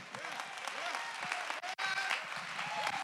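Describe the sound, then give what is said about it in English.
An audience claps their hands to give praise to God in a dense, steady burst of applause lasting a few seconds, with voices calling out over the clapping and a brief dip partway through. “Somebody give your clap your hands and give God the praise.”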